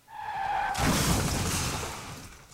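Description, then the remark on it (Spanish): A sharp, high squeal of skidding wheels gives way to a loud crash of a Mexico City streetcar with shattering debris that rumbles on for a couple of seconds before fading; no voices. “Escuché un ruido muy fuerte y después de unos instantes de confusión pude darme cuenta de que habíamos sufrido un desastroso accidente.”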